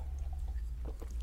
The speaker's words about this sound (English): That was the sound of me drinking.